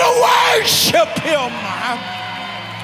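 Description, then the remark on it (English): A loud burst of many voices yelling and whooping together, a worship audience shouting and screaming in excited bursts that swell and then fade, with a steady low hum underneath. “Come on, I want you to shout for what you see Him doing in your life. I dare you to scream for the vision that you got for your children.”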